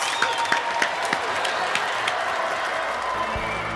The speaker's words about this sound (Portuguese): Já estão ouvindo as palmas!